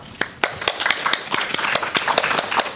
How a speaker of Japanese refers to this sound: 津田新浜防災学習クラブの皆さんに今一度大きな拍手をお送りください